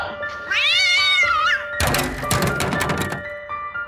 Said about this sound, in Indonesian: Ada seekor kucing yang melompat keluar dari bilik kamar mandi tersebut. Oh, hanya kucing.